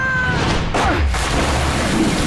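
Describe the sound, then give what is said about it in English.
Loud bomb explosions hitting the mess hall of Iron Gate in Alaska rumble in a continuous, roaring wash of deep noise, with a couple of sharper blasts bursting through partway. No one speaks. “McCallan had been sprinting towards an opening in the mess hall of Iron Gate when the bombs hit.”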